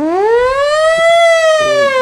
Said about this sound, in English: it is the firehouse siren starts going off for like the rest of the song.